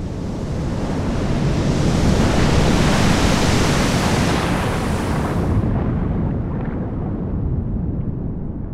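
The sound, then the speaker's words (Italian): A loud, continuous roar of ocean waves surging, a dense wash of noise that swells steadily, then loses its hiss after about five seconds and settles into a deep, rumbling churn. “l'aria era strana, il colore delle onde si era incupito e il mare sembrava ritirarsi.”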